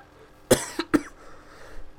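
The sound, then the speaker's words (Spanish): A quick burst of three coughs, the first strongest and the next two a bit softer, with nothing else around them. “no puedo encender el ventilador porque me da tos.”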